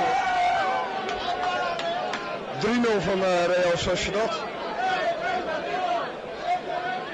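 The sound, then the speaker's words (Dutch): A dense, noisy crowd walking out of a football stadium after Atletico de Bilbao won murmurs and chatters continuously as people move along together, with one voice talking over the steady babble of many others. “Zo, nou, we lopen het stadion uit, het is een beetje druk hier, heel veel herrie.”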